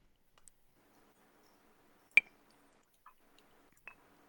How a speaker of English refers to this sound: my whiskey stone rolling over in the glass because I'm already at the bottom because I've been drinking this all night.